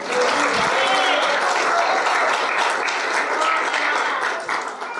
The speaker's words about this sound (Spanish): Vamos a darle un aplauso porque él vive.